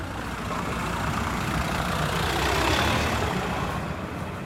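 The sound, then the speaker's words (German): A car engine runs steadily as the car is being parked in the small town of Swubice, on the other side of the Oder, in winter; a broad low rumble with a slight swell midway, no voices present. “Auf der anderen Seite der Oder, in der Kleinstadt Swubice, parkt Mihau seinen Wagen.”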